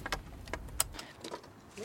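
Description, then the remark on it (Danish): Keys jingle and clink as a door lock is worked to unlock it, with a few sharp metallic clicks spread over a couple of seconds and faint background noise. “Det var så snupper jeg nøglen her.”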